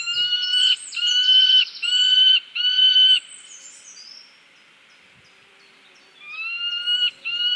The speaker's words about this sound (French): Le faucon pèlerin est plutôt silencieux. Son cri le plus fréquent est assez perçant et sec. En cas d'alerte, le cri plus rapide et éraillé s'amplifie si l'intrus continue de s'approcher du nid.